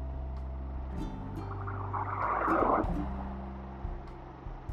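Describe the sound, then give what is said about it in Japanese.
A motorcycle engine hums in a steady low drone while riding on a sunny day with a slightly cold wind, with a rush of wind noise swelling briefly in the middle before easing off. Continuous, with no voices. “エンジン音など入っています”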